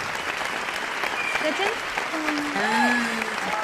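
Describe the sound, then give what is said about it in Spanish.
An applause sound effect marking the start of the K-Drama Awards: a dense, steady burst of many hands clapping at once, with faint cheering voices rising over it toward the end. “con, con 30 minutos de aplausos.”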